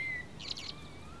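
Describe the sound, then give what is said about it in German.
A common blackbird sings faintly, a brief warbling phrase of two quick bright notes over a soft outdoor background hum, with no one speaking. “Hörst du die Amsel?”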